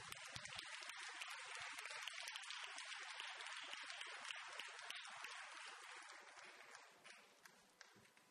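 audience applause

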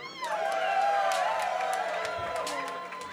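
audience cheering

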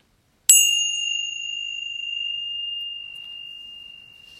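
meditation bell ringing

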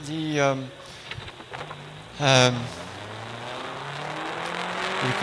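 car driving

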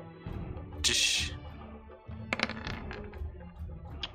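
dice being rolled

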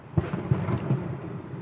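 fireworks exploding outside

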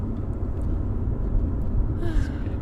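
truck passing by

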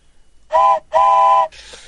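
train whistle sound effect

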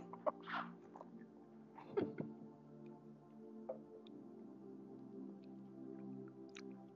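coughing

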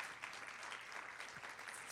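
audience applause

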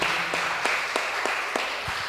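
audience applauding

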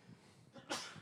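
sneeze

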